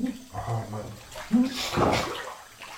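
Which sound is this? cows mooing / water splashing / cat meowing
water splashing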